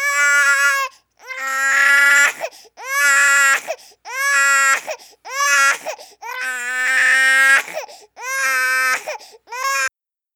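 baby screaming and crying

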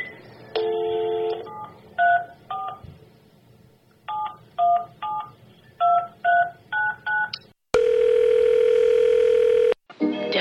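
telephone keypad dialing tones

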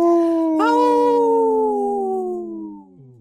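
wolf howling

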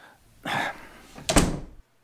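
door being closed

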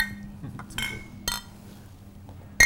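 glasses clinking

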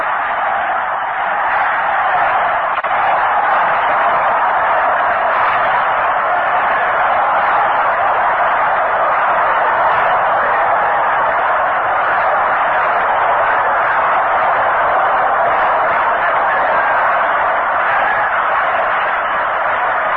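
stadium crowd roaring

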